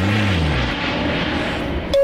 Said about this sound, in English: Oh, what's that? It's the airplane that I'm getting on to leave this podcast. Bye.